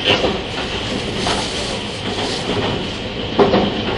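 A JR 651 series (outer-fan type) Super Hitachi No. 66 express train, running from Sendai to Ueno, rumbles steadily along the rails with a broad, continuous roar, faint rhythmic clatter, and a brief louder burst of squeal and rattle near the end; no one speaks.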